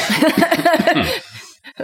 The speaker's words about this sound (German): Bewusstes Husten?